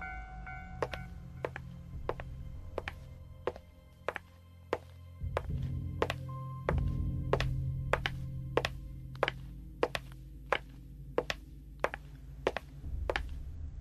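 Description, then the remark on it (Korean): A quick, steady series of about twenty sharp, crisp high-heel clicks on pavement, each a bright tap, from a woman in red high heels walking behind a motorcycle stopped at a lowered railway crossing barrier late at night, over a continuous low rumbling drone like an idling engine. “조금 쉴 수 있을까나 라고 생각한 그때 뒤로부터 구두 소리가 부지런히 들려왔습니다.”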